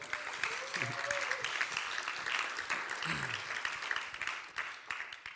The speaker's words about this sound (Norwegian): Jeg kan klappe for henne òg.